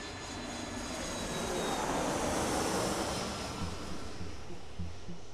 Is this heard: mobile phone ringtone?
no